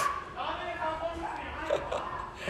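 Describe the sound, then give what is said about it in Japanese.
Children shouting and chattering in the background, a busy, uneven mix of young voices with a few higher yelps, at moderate loudness. “はい子供たちが騒いでおりました、はい、聞こえましたか”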